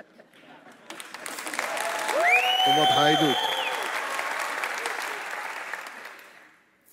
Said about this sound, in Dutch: vind het toch wel een mager applaus.